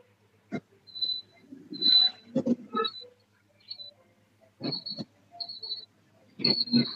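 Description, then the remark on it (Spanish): A female cat cries in a series of thin, high-pitched mewls, several short wails spread across the moment, mixed with low rustling bursts and thumps; fairly quiet, with no one speaking. “No, la gata sí, yo escucho la gata, la gata está llorando, obviamente.”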